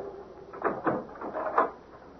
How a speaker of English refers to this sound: any questions which prevent you from reaching a verdict, will the foreman please come to the door and I shall open it.